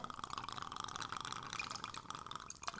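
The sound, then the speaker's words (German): Apfel Rouge apple liqueur from Leon Hartkorn is poured into a large glass for a long drink in a steady, continuous gurgling stream with a bright splashing trickle, lasting a few seconds without any talking. “Genau, also wir, mischen, wir mischen jetzt 50-50 ähm, Apfel Rouge von Leon Hartkorn”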